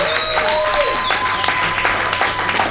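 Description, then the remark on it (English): A crowd applauds loudly and steadily, with whistles and cheers rising over the dense clapping throughout. “Make some noise. Make some noise for Soul.”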